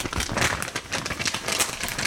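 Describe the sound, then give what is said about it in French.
Continuous rustling and crinkling of small paper slips with short written thoughts on them being stirred and drawn out of a Mason-type jar, with scratchy bursts over about two seconds and no voices. “un rituel que j'affectionne et c'est celui de piger dans un bocal, genre Mason, rempli de petites pensées écrites sur des petits bouts de papier et de voir quelle pensée va sortir et guider notre conversation ensemble aujourd'hui.”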